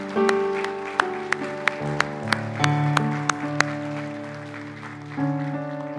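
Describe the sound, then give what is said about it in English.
An audience claps in sharp, steady beats, applauding the Lord during a sermon, over sustained organ-like music that holds and shifts chords, the claps ringing out distinctly at a moderate pace for several seconds. “Let's give the Lord an applause for what He's done.”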